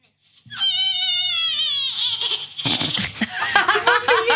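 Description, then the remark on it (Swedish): A person imitates a horse's neigh for a competition entry sent in as a short film: a loud, high-pitched whinny that wavers and slides downward, then breaks into a rough, fluttering snort-like trill, with laughter-like bursts at the end. “Som en liten film så har man gnäggat som en häst eller som man tycker att en häst låter.”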